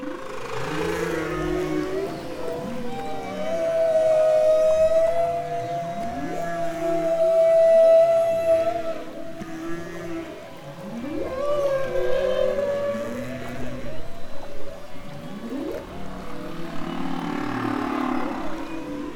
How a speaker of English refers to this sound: His favorite place is out on the water with headphones on, listening to whale song. Quick little timeout. I want to know what Jim Darling is hearing. What is whale song? If you haven't heard this before, just enjoy.